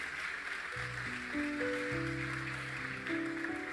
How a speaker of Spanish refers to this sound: ¿Cuántos glorifican el nombre de Dios? Vamos, dale un fuerte aplauso si usted cree que esto es así.